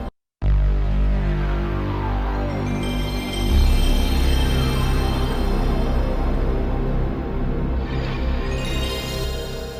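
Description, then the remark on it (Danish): A dense, sustained synth sound effect like a game console boot-up, made of several sounds mixed together and played at different speeds, with many layered tones sweeping and shifting in pitch, loud and continuous for several seconds after a brief silent start. “As it turns out, these sounds are mixed together and played at different speeds to produce the final product.”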